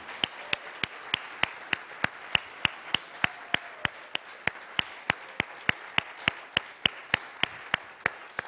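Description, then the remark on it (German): An audience claps together in a steady, even rhythm, about three sharp claps per second, sustained throughout at moderate loudness with no talking over it. “Komm, lass uns Ihnen einmal einen kräftigen Applaus geben.”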